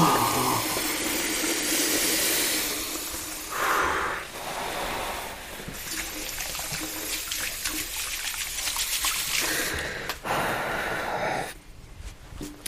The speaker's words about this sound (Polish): Muszę włożyć rękę pod zimną wodę.